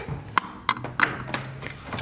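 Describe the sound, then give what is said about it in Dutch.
One person walks alone through the Eerste Kamer (Dutch Senate) building, about five sharp heel taps on a hard floor in an even rhythm, with a faint low hum underneath and no talking. “Dus loop ik hier even helemaal alleen rond.”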